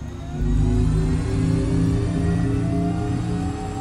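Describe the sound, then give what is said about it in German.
A continuous synthetic hum from an electric car's Acoustic Vehicle Alert System, a sample sound provided by the UN Economic Commission for Europe and modelled on a combustion engine: a steady layered drone with rising tonal harmonics, like an engine slowly gaining pitch, heard alone and fairly loud. “So sollen E-Autos in Zukunft klingen.”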